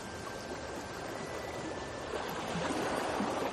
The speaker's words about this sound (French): Les vagues continuent leur spectacle pour vous, parfois plus intenses, parfois plus douces. Elles vont et viennent sans s'arrêter.